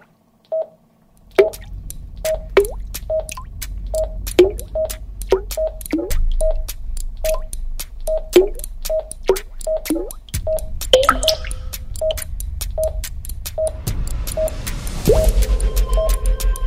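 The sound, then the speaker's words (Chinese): Water drips drop by drop in a steady, even rhythm, each drop a short mid-pitched plink with a sharp click. A low background hum continues underneath, and a rushing noise swells near the end. “紧张的情绪如滴水般，一滴一滴一滴。”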